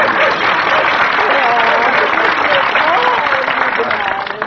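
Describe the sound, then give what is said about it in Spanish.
Steady audience applause for a contestant on a quiz show, a dense wash of clapping that holds loud and even for several seconds before easing slightly at the end, with faint voices and whoops mixed into the crowd. “Dele su premio, venga un aplauso y a la siguiente.”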